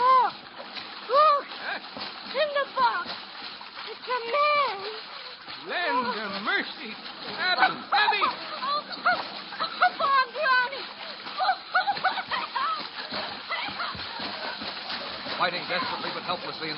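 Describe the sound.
Rough, churning water of a savage riptide splashes and surges continuously while voices cry out over the turbulent roar, loud throughout. A girl and her father are hurled apart and dragged beneath the surface, and a cedar chest is ripped to shreds.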